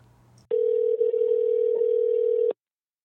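A loud, steady telephone dial tone, heard while someone dials a phone call, hums at one unbroken pitch for about two seconds, then cuts off abruptly. A faint low hum comes just before it, and no one speaks.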